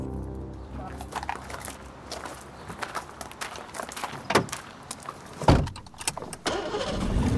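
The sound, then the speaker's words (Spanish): A Mini car drives along with a steady low engine rumble, broken by scattered sharp clicks and knocks and a louder thump toward the end. “Me encanta, me encanta este auto. ¿Qué auto es? una chochera. Es un mini.”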